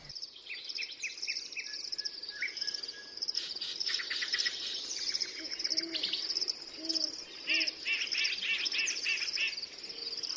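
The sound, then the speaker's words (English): Several birds chirp and trill in quick overlapping phrases over a steady background hum of insects, with soft low cooing calls drifting in midway; no one speaks. “this is some soothing sounds of birds before we go into part two of this interview on noise pollution.”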